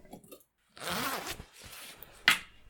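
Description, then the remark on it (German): Rustling of outdoor clothing being taken off after arriving home, with a long zipper pull followed by a brief sharp zip and scraping fabric noises, moderately loud, no talking. “Dort angekommen, zieht sie ihre Draußensachen aus.”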